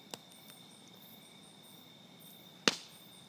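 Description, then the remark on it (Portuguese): A campfire crackles with a few sparse pops and one loud, sharp snap near the end, while a steady high insect chirring hums in the background of a quiet night. “O som da noite, o crepitar da fogueira,”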